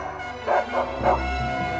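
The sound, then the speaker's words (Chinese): A pack of hunting hounds, released for a hunt, barks in three quick, bold yelps while many hunting horns sound, riding over a steady low droning hum that continues underneath throughout. “同时，放出去的猎犬群也都勇猛地吠叫起来。”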